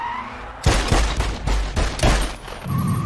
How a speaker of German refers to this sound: Der Täter gibt sechs Schüsse ab.